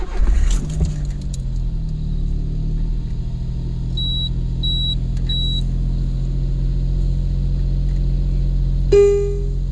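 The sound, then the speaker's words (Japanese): A small turbocharged kei car engine, a 2009 final-model Arcs with a K6 turbo engine, cranks briefly and catches, then settles into a steady idle rumble, with three short electronic beeps partway through and a brief tone near the end. “まあ、あじゃあ、あの、エンジンをかけたいと思います。”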